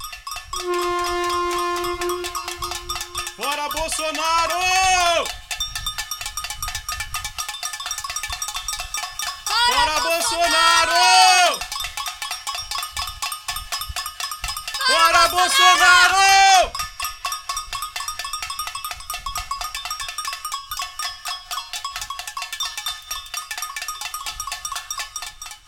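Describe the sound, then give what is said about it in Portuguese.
A pot-banging street protest: dense, continuous metallic clatter of many pots struck at once, with loud bursts of shouting voices rising over the din three times. “Vou subir o som aqui do panelaço e todo mundo aproveita aí o um momento, liga o som, bota a caixa aí bem alta e grita aí com a gente.”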